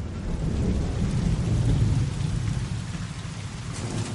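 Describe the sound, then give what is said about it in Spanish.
Steady rain pours down at night outside a prison in a dense, continuous hiss, with low rumbling underneath suggesting thunder. The downpour stays loud and even throughout, with no voices. “De noche, fuera llueve.”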